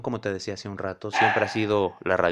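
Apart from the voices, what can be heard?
dog barking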